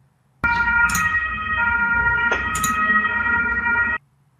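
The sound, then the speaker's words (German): A loud ambulance siren sound effect plays for several seconds, a steady multi-tone wail with a couple of sharp bursts, clear, starting and stopping abruptly. “Dieser Ton wird erklingen, wenn Nintendo Super Mario 3D World auf die Switch portet. Weil der Krankenwagen mich nämlich abholen muss dann.”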